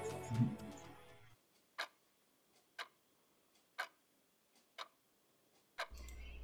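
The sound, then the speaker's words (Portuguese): A clock ticks steadily, six sharp, evenly spaced clicks about one second apart against near silence, after a brief burst of louder sound at the start. “ele encontrou uma solução para esse problema analisando um relógio bastante preciso.”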